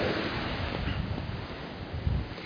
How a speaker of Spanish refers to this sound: espero que no te moleste el cantar de las olas, el cantar del mar para la reflexión.